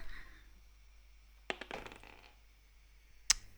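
Two twenty-sided dice clatter onto a hard surface in a short burst of rattling clicks, then one last sharp knock a moment later, over a quiet low hum.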